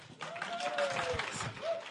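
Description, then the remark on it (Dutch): An audience applauding the sound crew, a dense, steady patter of many hands clapping at once, with a faint voice or tone drifting over the top. “applaus voor de geluidsmensen, zeg.”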